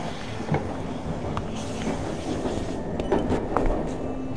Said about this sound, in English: Together, we bore witness as the engine pulled slowly out of the station.